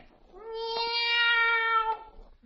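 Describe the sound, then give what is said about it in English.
A single long, drawn-out meow, steady in pitch and fairly loud, voiced by a boy imitating a cat, with faint clicks at its start and end and no talking. “Are the black cats out already?”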